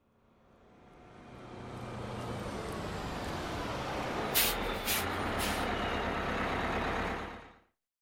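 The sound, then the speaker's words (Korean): A heavy bus engine rumbles as the bus comes to a halt without warning, with three sharp hissing bursts of air brakes in the middle before the sound cuts off. “예고도 없이 버스가 멈췄다.”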